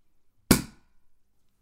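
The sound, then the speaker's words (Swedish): A single sharp pop bursts out as a small bottle of sparkling wine is opened, like a cork leaving the bottle, fading quickly with a brief fizzy tail in an otherwise quiet moment. “Nu kommer jag öppna El, mm. el Flaskis här.”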